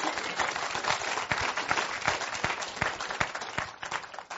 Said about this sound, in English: Um, you can give another ruckus clap.